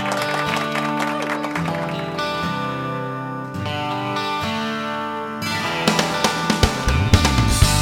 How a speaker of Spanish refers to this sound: particularmente el trabajo que viene desarrollando la Iglesia Casa de Dios que prepara más de 300 raciones de comida y esto se merece obviamente un fuerte aplauso.